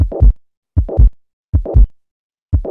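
Heart sounds repeating steadily at about eighty beats per minute, each single first sound followed by a continuous holosystolic murmur running up to a single second sound, then a silent pause, with no extra sounds and no diastolic murmur.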